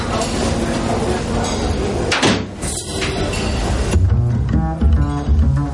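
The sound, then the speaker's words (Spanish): A door below the stairs of a restaurant is opened and then pushed shut, with a sharp knock of wood partway through, set against a steady, busy background wash and some voice-like sound. “Abre una puerta y se encuentra con una camarera.”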